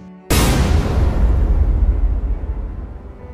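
A sudden loud explosion boom bursts in after a brief quiet moment, not far away, followed by a heavy rumbling roar that slowly fades as the ground shakes.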